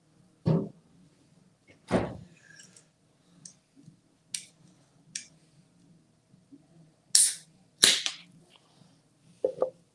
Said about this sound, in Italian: No, facciamo la pubblicità anche perché si è sentita la lattina, tutto.